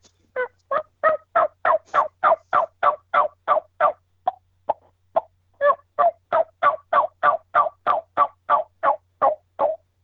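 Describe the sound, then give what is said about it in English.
A person imitates turkey yelps with their own voice rather than a latex call, a fast steady run of sharp, nasal calls, briefly broken by a few isolated clucks before the rhythmic yelping resumes, clear with no talking. “So there's a decent run of what I can do yelping and doing some clucking.”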